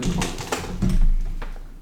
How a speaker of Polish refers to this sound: aktualnie wszystko działa i jestem bardzo zadowolony z tej klawiatury. Oczywiście chciałbym, żeby działało to żeby to działało dobrze cały czas, nie?